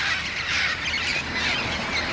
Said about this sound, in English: They come here to check off the green jay, the Inca dove, and the chachalaca on their life list and they come to see the multicolored flocks of parrots and parakeets with their distinctive squawks.